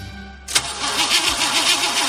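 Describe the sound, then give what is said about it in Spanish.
A car with battery problems cranks over and over without catching, its starter grinding in a steady, rhythmic whir after a brief low hum. Fairly loud, with no voices. “¿Problemas con la batería de tu coche?”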